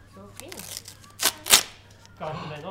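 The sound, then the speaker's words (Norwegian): Two sharp, noisy rips of tape and paper as a taped advent calendar package is torn open, between bits of soft voices before and after. “Å, oh, den teipa så godt igjen. Oh, kan du rive opp? Der, kan du rive opp der?”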